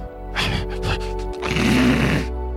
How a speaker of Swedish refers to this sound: Gnällandet höjer sig till ett skarpare flåsande eller fräsande när igelkotten känner sig hotad.